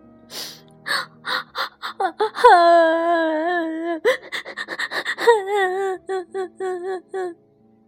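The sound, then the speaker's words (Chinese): A voice imitates a newly hatched baby ankylosaurus sobbing: rapid, hiccuping gasps broken by two long, wavering high-pitched wails, then more quick, choppy sobs tapering off in a steady rhythm. “甲龙宝宝觉得好孤单呀，就抽抽搭搭的哭起来了。”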